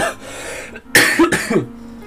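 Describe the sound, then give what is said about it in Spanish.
A couple of harsh coughs burst out after a quiet moment, the second one rougher and trailing into a throaty rasp, with no talking around them. A person coughs during allergy season. “Entonces me disculpo por las voces raras, las toses desagradables que habéis escuchado en todo el episodio.”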